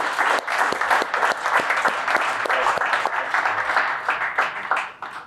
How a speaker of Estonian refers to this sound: vot, aga palun vähemalt suur aplaus Unibetile ja Unibeti spordipallile.